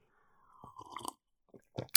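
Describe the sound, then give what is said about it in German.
A drawn-out slurping sip of hot coffee with a thin whistling tone, followed by a couple of soft swallowing gulps and a sharp little clink at the end. “ich nehme jetzt schon mal einen Schluck”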